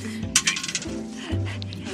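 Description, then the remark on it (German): A die is rolled beside the Rhine and clatters across a hard surface in a quick burst of sharp clicks, then settles on a 6, with a few fainter taps afterward over a low background hum. “Ich muss einmal kurz gucken, dass ich würfel, ohne dass der Würfel in den Rhein fällt.”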